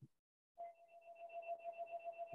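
An electronic house phone rings with a steady, warbling tone that pulses rapidly and continuously after a brief quiet moment, fairly clear, with no voices over it.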